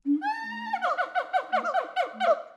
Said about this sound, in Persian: این صدای کی بود؟ اون بالا رو نگاه کن میمون کوچولوی شیطون و بامزه است